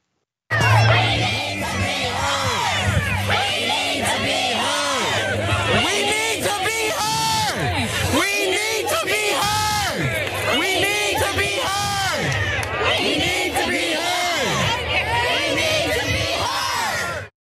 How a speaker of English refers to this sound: Um, here's one of the walkouts recorded. And I want to remind you this is because the school failed to protect this young man. Here it is.